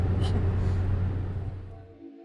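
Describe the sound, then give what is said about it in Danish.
A steady low rumble and engine drone from inside a moving car leaving Dronninglund, with road noise filling the cabin before it fades away at the end. “Og selvom vi startede det her afsnit i bilen med at forlade Dronning Lund, så er det jo selvfølgelig Dronning Lunds Slot, vi skal tale om i den her uge.”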